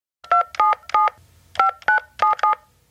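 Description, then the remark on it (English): Seven crisp touch-tone keypad beeps dialed in quick succession for a prank call, a group of three then a brief pause and four more, clear with no talking. “the story moves on to another prank call.”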